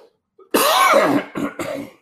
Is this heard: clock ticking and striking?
no